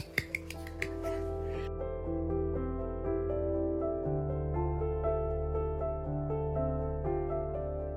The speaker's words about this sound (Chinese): 我们拍拍手。